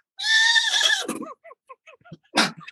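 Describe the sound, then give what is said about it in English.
A polo pony lets out a loud, shrill whinny lasting about a second, trailing into a series of short fluttering snorts and nickers, then a final breathy burst; clear with no talking. At a home near the Antelope Valley Freeway, under the stars. “And three drum sets set up under the stars, and you hear the polo ponies.”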